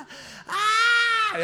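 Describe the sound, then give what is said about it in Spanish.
A man's voice lets out a loud, sustained, high-pitched scream of close to a second, imitating a woman who starts shrieking as he reaches for a playing card, after a brief quieter breathy lead-in. “Y donde yo voy a agarrar el naipe, esa mujer empieza a pegar gritos.”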